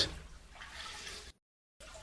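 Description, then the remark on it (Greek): Water is poured into a basin used for kneading dough, with a steady, hissy splashing for over a second; it stops briefly, then starts again. Fairly quiet, with no voices. “είναι, ρίχνει, ρίχνει, όχι ρε, έριχνε νερό στη λεκάνη που ζυμώνει.”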